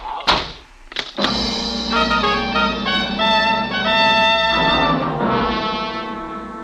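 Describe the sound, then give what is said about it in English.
A door thuds shut with two quick, solid knocks of impact, followed by a loud, sustained low droning tone that swells and holds before fading. “My lips closed, even as the door.”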